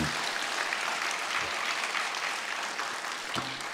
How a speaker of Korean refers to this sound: 이렇게 열심히 시간 잘 준비하고 있다 그러면 좀 감사하다고 박수라도 치던가 좀 격려하던가.